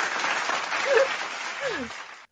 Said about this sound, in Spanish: El aplauso para Mónica.